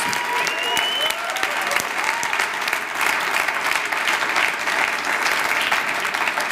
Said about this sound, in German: Und ich würde sagen, komm, lass uns mal Jesus einen Applaus geben über jeden Einzelnen, der hier in der Gemeinde in seiner Berufung freigesetzt wurde. Danke, Jesus.